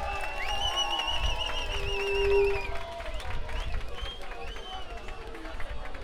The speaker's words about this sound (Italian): applauso a comando sulle mani tutti!